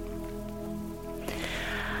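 Soft, steady rain patters on a roof, a quiet continuous hiss that swells a little brighter partway through, with a low faint hum underneath and no voices.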